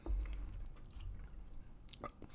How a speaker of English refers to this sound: Everything was good you are ch- munching on that toast. Take your sweet ass time.